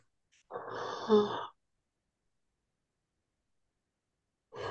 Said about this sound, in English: Ooh, I'm yawning again, y'all. It's been a long day at work.